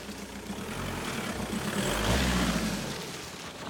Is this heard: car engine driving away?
yes